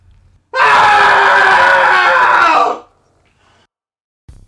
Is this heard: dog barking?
no